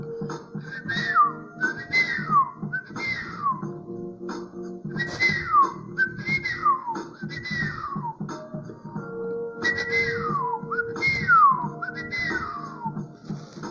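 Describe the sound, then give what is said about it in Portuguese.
A person whistles an imitation of birdsong: a steady series of about nine bright, downward-sliding chirps, each with quick trills, repeating over a low continuous hum, with no talking. “E começaram a cantar os passarinhos”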